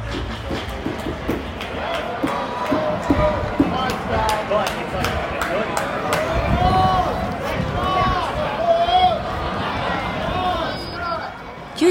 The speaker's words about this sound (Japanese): では早速カリフォルニア州の話題として偉業達成の次の日にオークランドの球場で行われたオークランドアスレチックス対ロサンゼルスエンゼルスの試合の様子をお届けしましょう